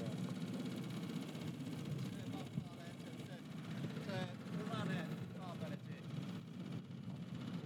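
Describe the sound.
A boat engine idles with a steady, low, continuous rumble, while people talk briefly over the motor's drone.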